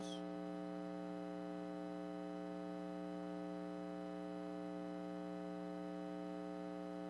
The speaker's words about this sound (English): if you can click on the computer music to be muted, so the, the hum might not be as loud.